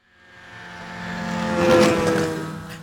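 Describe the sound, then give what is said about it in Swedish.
A small moped engine buzzes closer, its revving pitch climbing and growing louder as it arrives at a bicycle rack opposite a bank branch, where it is parked, then easing off slightly near the end. No voices are heard. “anländer på sin moped som han parkerar vid ett cykelställ mitt emot bankkontoret.”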